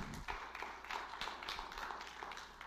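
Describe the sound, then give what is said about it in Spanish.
A crowd applauds for the Lord with steady, dense clapping that holds for a few seconds, sounding soft, with no one speaking over it. “¿Cuánto damos un aplauso al Señor?”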